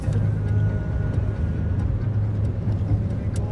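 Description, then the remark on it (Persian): Steady low rumble of road traffic as cars pass by, a continuous engine and tire drone with no distinct pauses, fairly loud throughout. “مگه ماشینا رو نمیشمردی؟”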